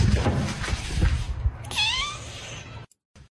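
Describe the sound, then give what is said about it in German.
A pet cat lets out a single drawn-out meow, fairly loud, with its harmonics curving downward, over a steady background rumble that cuts off abruptly near the end. “So, ja, das war unsere Katze.”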